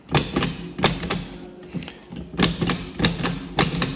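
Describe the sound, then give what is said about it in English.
Crisp clicks of a braille embossing frame, a downward writer, punching dots as someone writes their name, arriving in quick irregular bursts with brief pauses between, like steady tapping at a desk. No one speaks. “So I'm just writing my name on here now.”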